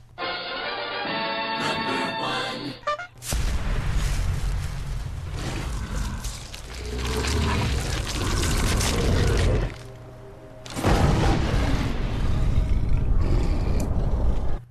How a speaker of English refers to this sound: All right, that noise might be familiar to those of you who invested a lot of time in Skyrim. Oh. It's the noise that you make as you transform into a werewolf.